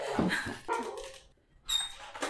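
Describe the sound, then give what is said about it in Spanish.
A pet dog barks several times in quick bursts, with short pauses between barks and no one speaking. “Ah, perdón, no sé qué le entra al perro que a veces no deja de ladrar una hora entera.”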